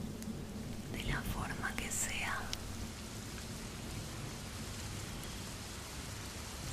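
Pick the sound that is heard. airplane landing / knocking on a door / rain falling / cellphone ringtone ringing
rain falling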